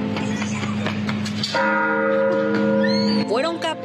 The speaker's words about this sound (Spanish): las campanas del Templo de San Miguel en Comala, Colima, con un estilo muy particular. Oye, ¿tú qué sientes cuando vas tocando la campana y vas volando allí con la soga?